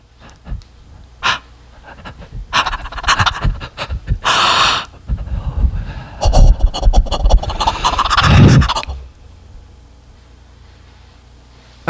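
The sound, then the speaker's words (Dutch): Heavy, rapid panting breaths in a loud burst lasting several seconds, with rasping gasps and snorts before it fades to quiet. No one speaks. “Er gaat een gerucht dat hij daar hele dagen op het strand ligt te hijgen na veel te late avonden uit.”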